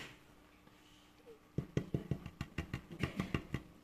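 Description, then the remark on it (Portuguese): A motorcycle engine putters outside, its rapid, uneven pulsing starting abruptly after a quiet stretch and continuing steadily to the end. “Ele cai com aquela moto um dia.”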